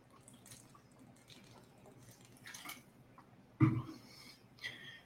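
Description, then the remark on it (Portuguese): Someone quietly sips water, with soft wet mouth sounds and a swallow, then a brief louder gulp or clunk near the end. No one speaks. “Se você está aí com sua Bíblia, abra, que é o tempo que eu dou um gole aqui nessa água.”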